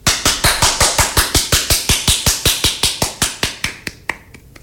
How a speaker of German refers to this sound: Ja, dann äh, Applaus. Applaus, Applaus ja.